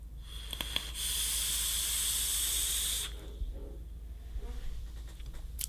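A steady, bright hiss of vaping on a 24 mm We Out Here Dough RDA atomizer, made by We Out Here Dough and mounted on a Kennedy Roundhouse, rises suddenly, holds for about two seconds, then cuts off, leaving faint clicks and low background hum.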